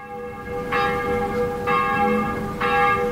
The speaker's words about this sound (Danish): Det er kirkeklokker, hvis man skulle være i tvivl.